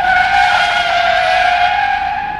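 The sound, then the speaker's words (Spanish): A loud, sustained tire screech sound effect of a motorcycle skidding to a stop, with steady high-pitched squealing tones that hold for a couple of seconds before easing off slightly at the end. “Hace este efecto lo tenemos. Y llega y para la moto.”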